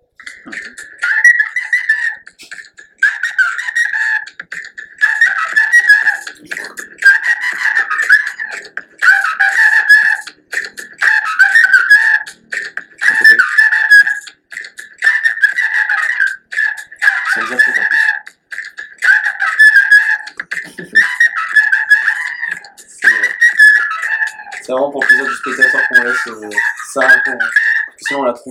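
A flute plays a pop song melody in short repeated phrases, loud and close, with breathy, slightly shrill notes and brief pauses between lines, played alone for the whole stretch.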